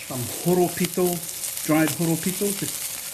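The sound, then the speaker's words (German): Steady sizzling hiss of a few horopito leaves that a chef throws into a hot frying pan while cooking a Maori dish in New Zealand, with brief tonal, voice-like sounds rising and falling over it. “wirft ein paar Horopito-Blätter in die Pfanne.”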